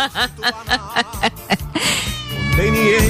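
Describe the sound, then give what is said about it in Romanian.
Six quick, rhythmic cat meows form a song's melody, then give way to a long, drawn-out wailing meow over a fuller musical backing. The sound is loud. “uh, ca să facem dreptate chiar tuturor, uh, trebuie să dau și piesa cu pisica de stămuța în coadă.”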